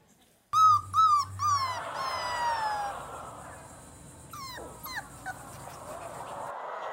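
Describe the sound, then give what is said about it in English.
A newborn puppy, Benny, just days old, whimpers in a quick run of high, squeaky cries that trail into a drawn-out whine, followed after a pause by a couple of short yips over faint background noise. “Here's footage of him just days old, and I want to warn you if you have small children in the room, let them watch because this is pretty this is pretty cute.”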